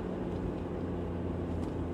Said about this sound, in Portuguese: Estamos curtindo este passeio de carro, vamos passar pela cidade de Salem, conhecida como Cherry City, a cidade das cerejas.